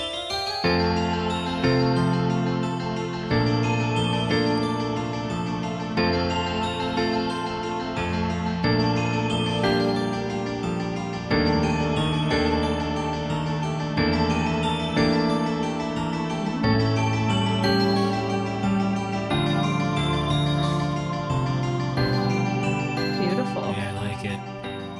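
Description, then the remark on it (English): A video game music track from Zelda: Majora's Mask, a Nintendo 64 game from 2000, plays steadily for the whole stretch, with layered sustained chords and bright melodic lines at an even, fairly loud level, and no voices. “I love the like classical music influence on so many of these games.”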